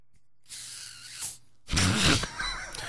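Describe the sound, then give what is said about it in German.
A bottle of still water being opened: a short plastic crackle as the cap twists, a brief pause, then a louder burst of rustling and handling noise. “Das ist doof, wenn du das mit stillem Wasser machst.”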